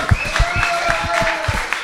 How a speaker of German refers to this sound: Okay, Applaus!